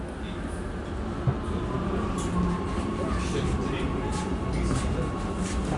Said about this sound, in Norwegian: Toget bremser inn på stasjonen, og jeg går av.